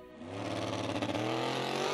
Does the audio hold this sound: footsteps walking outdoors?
no